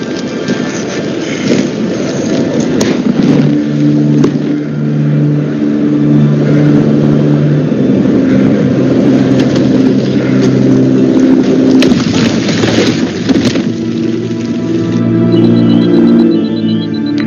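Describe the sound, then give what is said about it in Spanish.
A train in a Netflix series rolls along steadily on rails through snow, a loud continuous mechanical rumble with droning engine tones shifting in pitch and a windy hiss over it, with no talking. “Es un tren que va en los rieles por la nieve, ¿no?”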